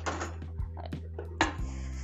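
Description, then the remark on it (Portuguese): Dishes and pots clatter in a few sharp knocks and clinks, the last one ringing briefly like metal, with a steady low hum underneath. “Lavei a louça, só faltou as panelas.”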